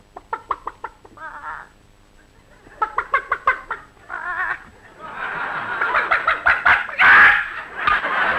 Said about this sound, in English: We got to feed the chickens. Here, chick, chick, chick, chick, chick, chick, chick, chick. Come on, chick, chick. Here's some corn for you.